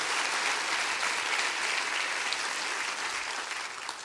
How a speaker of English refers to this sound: Clap your hands real big and rejoice in that.